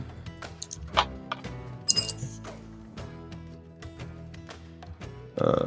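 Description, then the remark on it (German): A ten-sided die is rolled for a stealth check, clattering and tumbling across a hard surface, a series of sharp clinking ticks and bounces over several seconds, with quiet murmuring voices faintly underneath. “Dann kannst du versuchen, auf Heimlichkeit zu werf würfeln.”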